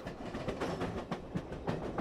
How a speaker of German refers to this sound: Der Zug fährt ganz schön langsam, da werde ich ja fast schon müde.